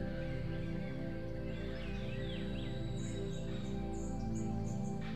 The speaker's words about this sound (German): Lausche den Klängen des Dschungels. Was kannst du hören?